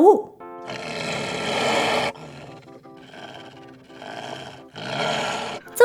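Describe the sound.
A beast with long fangs roars at a dwarf in loud, rough bursts and blows breath into his face: a long growling roar, a few shorter throaty snarls, then another big roar, with brief voiced cries at the start and end.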